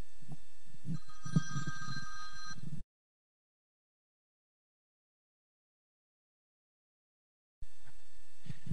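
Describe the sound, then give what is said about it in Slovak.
The speaker's mobile phone, left switched on, rings with a bright, tonal ringtone for a few seconds during a religious talk. It cuts to a long dead silence, then the ringing returns briefly at the end, fairly loud. “Pardon, ja som si nevypol mobil.”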